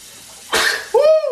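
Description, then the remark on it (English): A single loud sneeze: a sharp, breathy burst of air followed by a short voiced, falling tail, with no talking around it. “God dang, boy, that's a good sneeze right there.”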